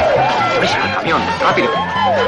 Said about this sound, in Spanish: Se escuchan las sirenas y todos huyen.